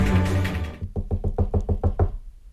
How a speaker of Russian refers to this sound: Раздался робкий стук в дверь.